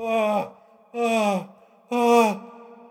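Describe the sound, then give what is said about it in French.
A man moans with sexual pleasure three times in short, breathy groans that slide downward in pitch, evenly spaced about a second apart, fairly loud, with no talking. “Pourtant, les hommes aussi prennent du plaisir et savent l'exprimer quand ils se lâchent un peu.”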